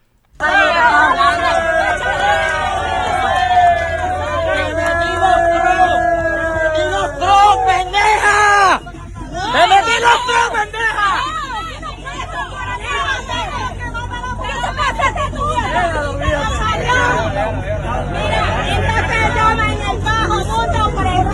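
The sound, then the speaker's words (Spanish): A loud, dense crowd of voices shouting and yelling over one another outdoors at a demonstration, continuous for about twenty seconds, with a brief lull near the middle and traffic noise underneath. “Eh, y van a escuchar unos gritos, pero quiero que escuchen qué fue lo que pasó para recordarles.”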